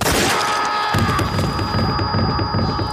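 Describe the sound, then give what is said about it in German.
Dull booming gunshots from a shootout scene in an audio drama thud repeatedly through a dense, noisy scene, loud, with the low rumble kicking in about a second after the start and continuing steadily to the end. “Aber als Stilmittel kann man zum Beispiel einer Schießerei wunderbar etwas Würze hinzufügen”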